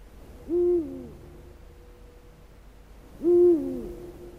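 Two deep, resonant hoots of a Eurasian eagle-owl, evenly spaced about three seconds apart, standing alone against a quiet background with no talking.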